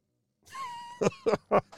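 A dog snoring: a thin, whistling nasal tone followed by three quick, rough snorts in a row, with no talking.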